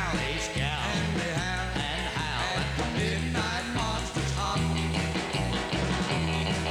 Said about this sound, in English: this was recorded at Norman Petty Studios, and you hear …, … band, playing